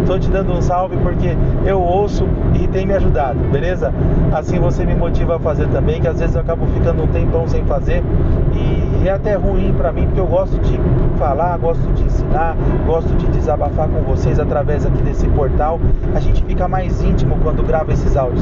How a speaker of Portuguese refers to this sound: Desculpa a barulheira, é que eu estou dirigindo em direção a minhas férias aqui de, de, de pescaria durante o período do carnaval,